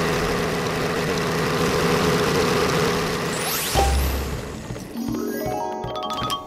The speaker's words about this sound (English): Every day they're printing 125 billion. That's like five World War IIs per day. Cash at the Federal Reserve, an infinite amount. of Cash at the Federal Money printer go boom.